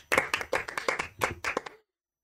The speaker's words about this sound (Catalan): S'aplaudeix.